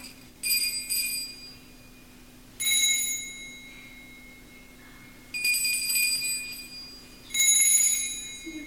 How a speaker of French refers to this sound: Il va aller du côté de l'étable. Et on va entendre maintenant des plus petites cloches. Écoutez bien.